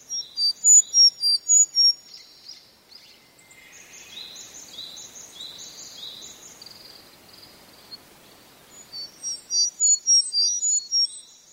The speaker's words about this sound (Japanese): 先ほどから泣いては枝移りしてまた泣いてとせわしないエゾムシクイですが動きが速くてほとんど姿が見えません。